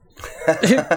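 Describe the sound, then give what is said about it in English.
A sneeze, a brief voiced burst with a breathy rise and a sharp, sliding exhale, followed by a smaller nasal sound at the end. “Bless you, Thank you.”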